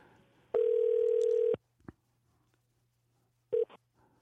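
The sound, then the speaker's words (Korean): A telephone dial tone on an outgoing call placed to a listener during a Korean radio show: a steady one-second electronic tone, a pause of about two seconds, then the next tone starts briefly. No one speaks. “0 2 3님 전화 한번 걸어서”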